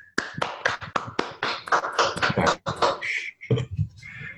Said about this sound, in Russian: Жидкие аплодисменты.